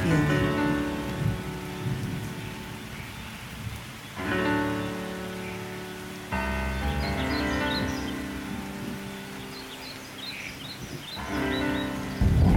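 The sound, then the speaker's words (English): Steady rain with occasional low rumbles of thunder sits beneath gentle piano and flute music, while faint shorebird calls chirp in the background. “There are five sounds in this music piano, flute, shorebirds, thunder, and rain.”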